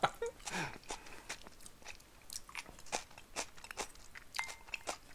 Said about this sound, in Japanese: どうなのこのもやしの咀嚼音動画みたいになってると思うんだけどさ